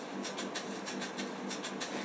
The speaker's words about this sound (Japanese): そしたら次あのパーカッションをちょっとあのシェッシェケシェッシェケシェッシェケ入れるって言ってたやつねこれもうねいつものもう僕自分のトラックで何回使ったかわかんないぐらいのね結構頻繁に使ってるもう定番の音これ